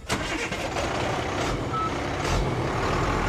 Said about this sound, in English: The fish are moved by net to a water filled tank on this truck.